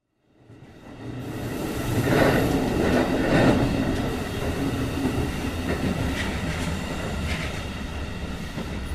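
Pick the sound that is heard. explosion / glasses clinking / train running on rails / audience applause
train running on rails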